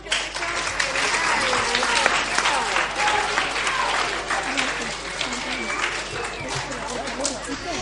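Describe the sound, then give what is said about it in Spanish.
Sustained applause from an audience for a group of fifth-grade primary school children, dense rapid clapping that stays steady and fairly loud for several seconds, with some voices mixed in underneath. “Este bueno, pues le vamos a dar un aplauso, ¿no?”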